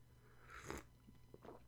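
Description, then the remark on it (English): A brief slurping sip of hot turmeric tea, followed by a few soft swallowing and mouth sounds against a quiet background hum, with no talking. “let me get a sip real quick there.”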